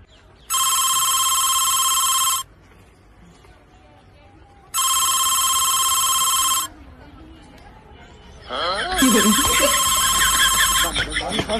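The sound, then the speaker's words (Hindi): A telephone rings in three steady, bright bursts spaced a couple of seconds apart, fairly loud, as a call is placed to someone's number. Voices start talking over the last ring. “तेरे पास नंबर है ना हाँ फोन लगा अभी पता चल जाएगा साले ने मुझे क्या बेवकूफ समझाया क्या साला करता रहे फोन मैं भी उठाऊंगा ही नहीं”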